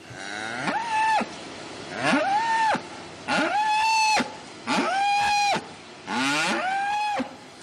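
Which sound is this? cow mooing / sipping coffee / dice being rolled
cow mooing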